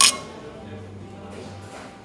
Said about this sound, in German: Haben wir schon angestoßen? Wir trinken schon die ganze Zeit, aber erstmal auf das, was es wert ist. Auf das, was es wert ist.